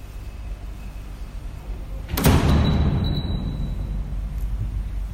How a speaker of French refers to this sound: Les portes s'ouvrent, se franchissent, et puis se referment sur nos pas